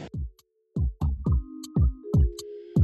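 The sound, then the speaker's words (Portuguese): A rapid series of about eight sharp smartphone camera shutter clicks as a phone takes photos of smiling people beside the Central do Brasil, fairly loud, with brief pauses between bursts and a faint chair creaking underneath. “Som de celular fotografando, som de cadeira rangendo, música do início do século XX, as sirenes da ambulância passando pela cidade enquanto se grava um podcast ao lado da Central do Brasil.”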